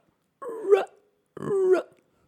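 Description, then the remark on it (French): A voice imitates a croaking frog with two drawn-out, throaty croaks, each about half a second long and separated by a short pause, sounding fairly loud, with no talking. “Mais par contre, c'est une, euh, une, grenouille un peu malade quand même.”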